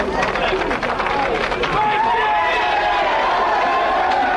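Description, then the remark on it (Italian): A crowd in Pavia applauds and cheers at 7:30 in the morning as a long convoy of carabinieri cars arrives, a steady, dense wash of clapping with excited voices mixed in, sustained and fairly loud throughout. “il lungo corteo di auto dei carabinieri che è arrivato anche qui nostra gli applausi in un momento di grande commozione.”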